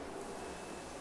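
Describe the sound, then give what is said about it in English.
A steady, low rumbling drone of an airplane passing overhead, a continuous broad roar holding even throughout with no voices. “the airplane going overhead”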